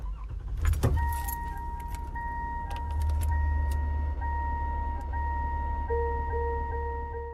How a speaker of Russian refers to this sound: Трек начинается со звука сигнала открытой двери машины, настолько знакомого, для многих обыденного, что пробуждает целую череду чувственных воспоминаний.